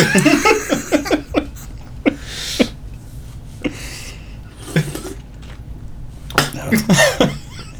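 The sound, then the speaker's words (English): A loud coughing fit after something went down the wrong way: clusters of harsh, rapid coughs with short gasping pauses between them, building again into a final burst of repeated hacking near the end. “I was trying to make myself sound badass, and that went down the wrong way.”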